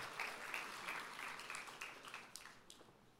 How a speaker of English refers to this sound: That was a pitiful clap. So insincere.